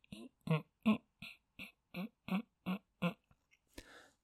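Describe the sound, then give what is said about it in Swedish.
A voice imitates a small worm slowly crawling: about nine soft, evenly spaced, squelchy vocal pulses, fairly quiet, ending with a breathy exhale. “Det var en liten mask som kom krypande.”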